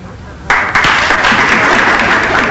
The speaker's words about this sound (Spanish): Atención, atención el finado socotroco que está en la gatera 5, al fondo del patio, va de salida. Vamos a despedirlo con un cariñoso aplauso.